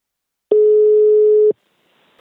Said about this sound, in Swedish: Nu tar vi en kort paus och ringer upp Anna-Karin på Invacare